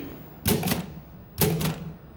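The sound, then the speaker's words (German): Two short bursts of rapid keyboard typing as the word "Medien" is typed into a program that creates virtual insects: clicky keystrokes clustered together with a brief pause between them, moderately loud, with no one speaking. “Jetzt hast, jetzt hast du Medien getippt.”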